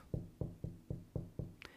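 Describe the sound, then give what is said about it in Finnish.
Six steady, evenly spaced, moderately loud knocks on a door, followed by a brief faint high-pitched tick at the very end. “Mutta ainoa yksi muuri tai lukko on se, että, että hän ei tule väkisin koskaan meidän sisälle – vaan hän tulee sillä kolkuttamisella,”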